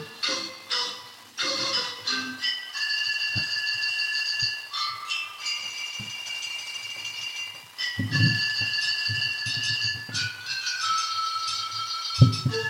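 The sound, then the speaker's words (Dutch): A whole orchestra blows hollow, flute-like notes across Australian beer bottles, forming a steady melody, several pitches held and changing together, with occasional soft low thumps underneath; no voices. “We zitten dus naar een YouTube filmpje te kijken. van een Beer Bottle Symphony Orchestra.”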